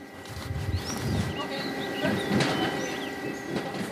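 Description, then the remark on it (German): Railway station ambience at the station in Rosenheim, with a steady low rumble of a train moving through, a constant mechanical hum, and occasional faint bird chirps above throughout. “So, wir sind hier in Rosenheim am Bahnhof verabredet.”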